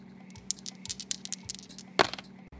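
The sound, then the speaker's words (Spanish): Two dice rattle as they're shaken, producing a quick run of irregular, light clicking taps with one sharper clack near the end. Fairly quiet, with no voices. “Bien, ahora vamos a agitar estos dos dados, los movemos.”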